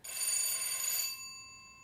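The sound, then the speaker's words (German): A bright bell rings once, loud, then its metallic tone lingers and fades with a clear humming decay. No voices are present. “Einmal und noch einmal und noch einmal ist noch lange nicht fünfmal. Und Tante Irmingard läutet doch fünfmal hintereinander”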